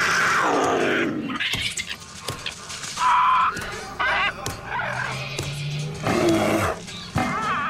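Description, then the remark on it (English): A chaotic chorus of animals screaming in a giant warehouse, among them a primate, a porcupine, a bear and a parrot: overlapping shrieks, roars and yelps at shifting pitches, loud and continuous with sudden sharp bursts, no voices talking. “So let's talk about that giant warehouse filled with screaming animals, shall can't we?”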